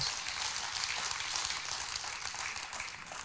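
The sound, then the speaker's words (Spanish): A church crowd applauds a group of children steadily, a dense, even wash of many hands clapping that stays loud for the whole stretch with no voices over it. “Denle un aplauso a estos chicos.”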